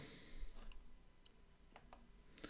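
A few soft, sharp clicks from a computer mouse, spaced irregularly over a quiet background, fairly faint.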